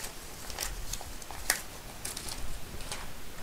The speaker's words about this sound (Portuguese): Eu vou mexer aqui um pouco no teclado para vocês verem se escutam. É um teclado mecânico, ok?